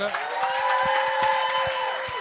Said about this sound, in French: Est-ce qu'on peut applaudir tous les humoristes que c'est chaud, s'il vous plaît? Bravo!